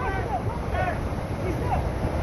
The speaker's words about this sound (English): The waves keep pounding them they struggle to stay afloat and then struggle to get back to shore.